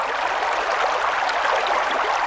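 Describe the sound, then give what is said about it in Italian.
A sound effect of leaking water: water runs in a steady, continuous rush with a bright, hissing splash. It stays fairly loud throughout, and nobody speaks. “E sentite come fa acqua da tutte le parti.”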